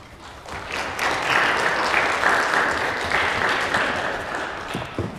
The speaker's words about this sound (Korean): 우리 나오실 때 함께 예, 박수로 환영해 주시면 감사하겠습니다.